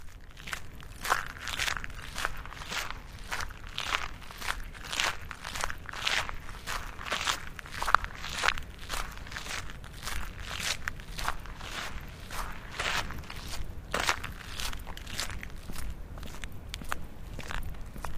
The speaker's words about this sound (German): können eigentlich einfache Schritte klingen, wenn man über Kies läuft.